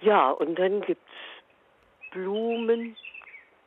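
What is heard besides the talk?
european robin singing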